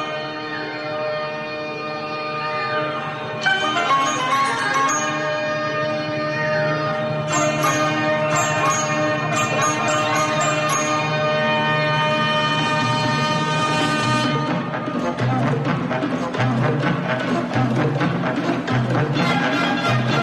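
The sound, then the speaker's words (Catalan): A radio program's theme tune plays on its own: dense, sustained instrumental tones that swell louder after a quiet opening, with bright accented hits through the middle and no voices. “Mira, mira, escoltem una mica la, la sintonia.”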